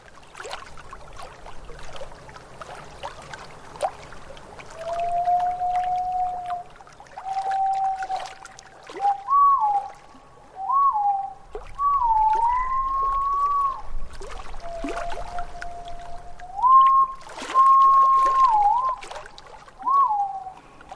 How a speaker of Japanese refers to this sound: 背中側はオリーブ色頭から胸は明るい黄緑色をしたとても美しい鳩ですただ山の中ではっきりと姿を観察できる機会はほとんどありませんそれでもこの声が遠くかすかにでも聞こえてくればすぐに青バトだとわかります